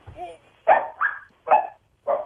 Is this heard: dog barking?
yes